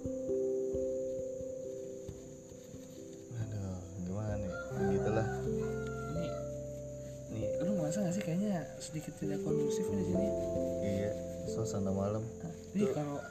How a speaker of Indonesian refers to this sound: ayam aja bunyi ini padahal masih jam jam berapa sih posisi sekarang setengah dua men setengah dua tuh jam setengah dua tapi ayam jelas tuh pada bunyi bunyi terus ya